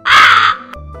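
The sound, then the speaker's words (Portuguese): A single loud, harsh caw from a big bird rings out for about half a second, then gives way to a low, quiet rumble. “E pássaros gigantes.”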